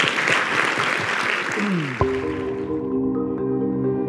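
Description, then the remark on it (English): A crowd claps loudly and steadily for about two seconds, then the applause fades out as a sustained musical tone swells in and carries on alone. “Let's hear it one more time.”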